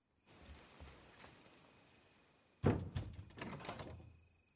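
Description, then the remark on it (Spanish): A door leading out to the garden is opened with a loud clunk, followed by a few rattling knocks and scrapes of the latch and frame, after a quiet stretch with faint handling noises. “Sale por una puerta hacia el jardín.”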